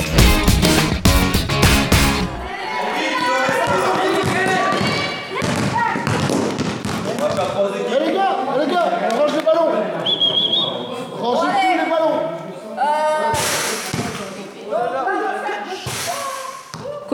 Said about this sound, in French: de mieux que de commencer la journée avec le doux son d'un entraînement de basket.